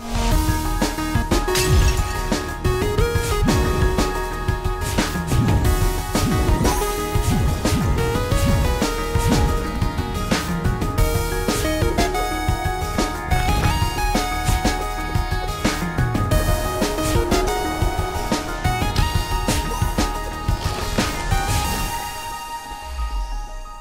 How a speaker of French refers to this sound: l'extrait qu'on a entendu, c'est tiré du jeu euh, Céleste, qui est un jeu de plateforme 2D qui mélange l'action et puzzle